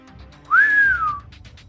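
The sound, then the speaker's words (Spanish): A single clear human whistle, about three-quarters of a second long, rising briefly then gliding slowly downward, like a signal call, made by a man with wetted lips in the shade of a huge beech at the edge of a forest clearing, imitating another person's whistle; a soft low murmur beneath, no speech. “Se humedeció los labios y lanzó un silbido, lo más parecido que pudo al del asesino.”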